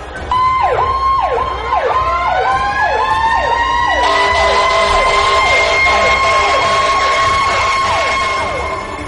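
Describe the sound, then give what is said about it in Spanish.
A fire engine siren wails loudly as firefighters, called by neighbours, arrive at a house fire: rapid repeated up-down yelps give way to a steady high tone joined by a second sustained wail, all over a low engine rumble with no speech. “De inmediato los vecinos hicieron el llamado a los bomberos que llegaron a atender la emergencia.”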